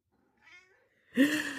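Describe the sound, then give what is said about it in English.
A domestic cat named Fanny meows twice: a soft, faint chirp first, then a louder, longer, drawn-out meow with clear harmonics, with no talking. “Uh, for you know, this is a cat podcast, and I have yet to get my cats on the podcast”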